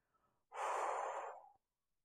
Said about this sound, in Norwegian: Og så, når vi har gjort det, så puster vi ut, og da hiver vi tankene oppi ryggsekken.